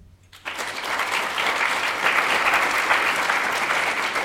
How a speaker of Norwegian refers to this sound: Dere kan gi en applaus.